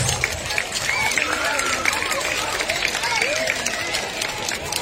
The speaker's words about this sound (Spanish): Fuerte las palmas para animarle, por favor. Esos aplausos, bien fuerte, que se escuchen, hombre, caramba, esos aplausos más fuertes, más fuertes esos aplausos para recibirlo.